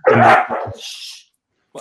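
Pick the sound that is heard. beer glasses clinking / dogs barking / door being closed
dogs barking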